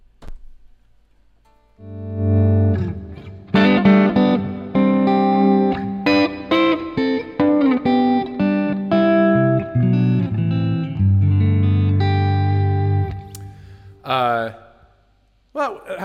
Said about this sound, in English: oh, too much reverb.